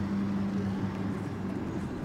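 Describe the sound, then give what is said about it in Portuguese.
Cars roll along a cobblestone road with a steady, droning engine rumble and low hum, continuous, with no voices. “Carros próximos, carros afastados, carros em movimento pela pedraria da estrada.”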